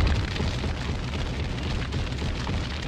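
A MOAB bomb explosion sound effect: a loud, sustained roar of blast noise with a heavy low rumble that stays steady for about three seconds, with no voices.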